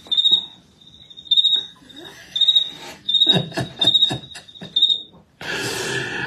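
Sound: crickets chirping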